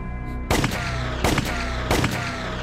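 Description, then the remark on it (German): Three loud gunshot effects ring out at a steady, evenly spaced pace over a sustained musical backing in the jingle for the Der Serientäter segment, each crack sharp with a brief echoing tail. Nobody speaks. “Die Schüsse passen übrigens zu Red Dead Redemption.”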